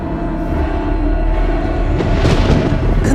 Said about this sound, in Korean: 갑자기 우르르 쾅쾅 천둥 번개가 치는 겁니다.